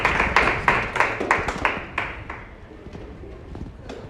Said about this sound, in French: Applaudissez, applaudissez pour vous-même pour nous tous.